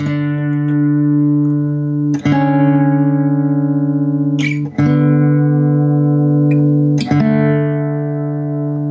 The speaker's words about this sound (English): and it's, I mean, really simple, but when you play it on a really reverbed out electric guitar, it sounds fantastic.